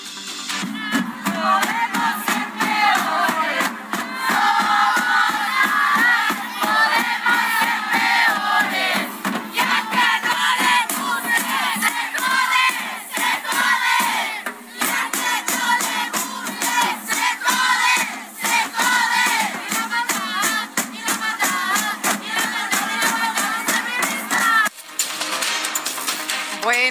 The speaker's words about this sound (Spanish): ahí parte de lo que se dijo, parte de estas consignas por la movilización